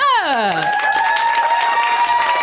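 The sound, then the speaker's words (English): A live comedy show audience screams and applauds loudly, with a high shrill scream swooping downward at the start over dense continuous clapping, followed by sustained cheering tones throughout. “That was some nice screaming.”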